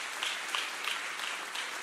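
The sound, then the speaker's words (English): A crowd gives a round of applause to Emmanuel Church in the morning, a dense wash of many hands clapping at an even level with a few sharper claps poking through, and no one talking over it. “And first off, can we can we give a huge round of applause to Emmanuel Church this morning?”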